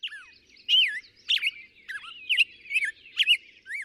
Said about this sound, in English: Dr. Clinton Francis is a sensory ecologist who studies how noise pollution affects birds, like this black headed grosbeak.